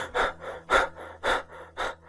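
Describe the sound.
A voice imitates the heavy, ragged, out-of-breath breathing of a masked killer, a steady rhythm of loud, raspy gasps alternating with softer exhales, about four deep breath cycles in two seconds.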